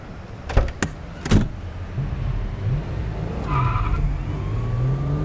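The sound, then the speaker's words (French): A few sharp clunks, then a car engine revs up and pulls away as tires squeal briefly, the motor rising and falling in pitch, with no talking, as two people drive off in a car they have taken from their pursuers. “Prenons leur voiture. Je prends le volant.”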